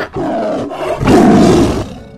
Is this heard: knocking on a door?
no